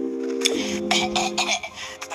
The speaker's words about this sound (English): me clear my throat.